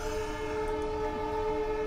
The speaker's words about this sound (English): It's a golden opportunity to get a train coming through the uh, the episode here because yes, there's a train track